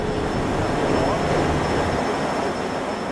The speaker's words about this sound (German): Eine Treppe höher kommt zum Lärm noch Hitze. Hier dröhnt der XXL-Föhn, uns läuft sofort der Schweiß aus allen Poren.